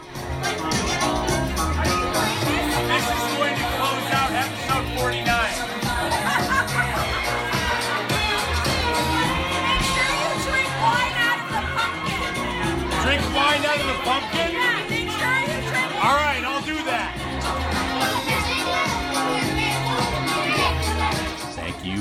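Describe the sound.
A Halloween party crowd fills the air with overlapping chatter, many voices talking at once with bursts of laughter and shouts, a loud, steady babble that never lets up.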